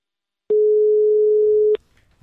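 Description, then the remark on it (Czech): A steady electronic telephone tone on the other end of a phone line holds at one pitch for just over a second, loud and clean, with a click at its start and end, then fades to faint line noise. “Mezitím se nám na druhé straně ozývá známý tón.”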